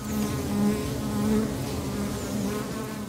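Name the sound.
buzzing swarm of bees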